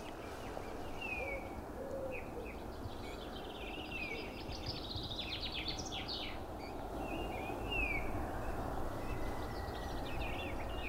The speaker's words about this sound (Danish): Og der var grønspætte, der kalder et sted i baggrunden. Kyk, kyk, kyk, kyk, kyk, kyk, kyk, kyk.